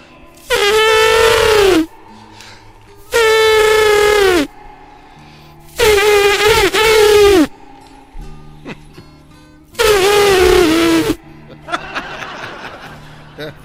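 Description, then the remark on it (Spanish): A voice imitates an angry elephant trumpeting: four loud, brassy blasts, each about a second long and sliding down in pitch at the end, separated by short pauses, with soft noise afterward. “Y, y, el elefante muy enojado nomás le hacía...”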